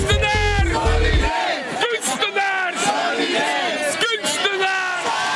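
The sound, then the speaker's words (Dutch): A large crowd of arts-sector protesters shouts and chants loudly in unison, a dense wall of raised voices with rhythmic bursts, sustained throughout, with a deep low rumble at the very start. “kunstensector laat luidkeels van zich horen”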